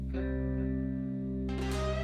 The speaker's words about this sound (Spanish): Sin embargo, en algún punto puede que escuches estática si sintonizas cierta frecuencia.